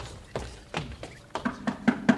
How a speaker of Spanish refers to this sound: Anda, anda, golpeale otra vez la puerta. Decirle que si no abre, se la voy a tirar abajo.